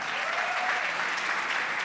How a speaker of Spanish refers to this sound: Fuerte el aplauso para ellos.